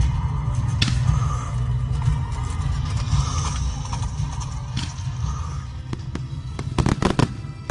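Fireworks explode continuously at night, lighting up the sky over a valley, a deep rolling rumble of booms punctuated by sharp cracks, building to a rapid, loud cluster of bangs near the end.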